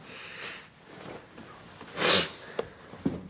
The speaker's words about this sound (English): And your um, your sniffing is excellent today. Have you got a slight cold or something?